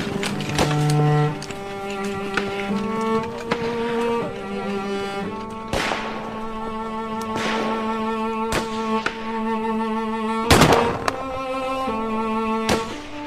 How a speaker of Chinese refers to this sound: 部长，那边有枪声。